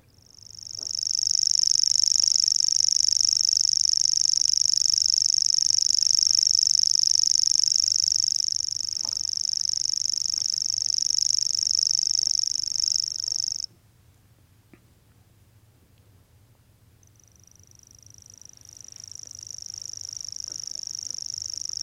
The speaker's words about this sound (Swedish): Gräshoppssångare, visst har vi det. Vi ska lyssna på hur en sån låter.